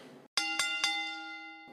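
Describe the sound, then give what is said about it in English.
A wrestling ring bell clangs three times in quick succession at the end of a match, each bright metallic strike ringing out and slowly fading, loud with faint background noise around it. “so not much of a match here, but the bell rings and a winner is determined.”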